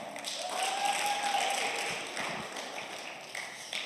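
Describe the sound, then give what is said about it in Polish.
A crowd applauds volunteers steadily for a few seconds, a dense, even patter of many hands clapping at a moderate level that thins slightly toward the end. No one speaks over it. “E, dla tych ochotników brawa.”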